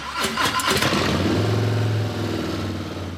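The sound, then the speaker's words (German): A big large-displacement Harley-Davidson V-twin motorcycle engine cranks and fires with a few sharp bursts, then settles into a deep, loping idle rumble, loud, with no voices. “Was aber, wenn die hubraumstarken Harley V-Motoren eines Tages nicht mehr so klingen”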